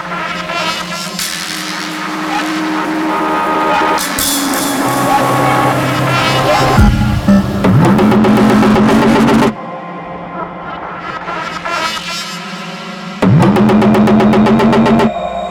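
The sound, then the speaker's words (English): A loud, dense electronic track driven by a repeating heavy bass tone that bends and slides downward in pitch, dropping out briefly before returning at full force. “I really love that repeated bass sound, especially when it pitches down.”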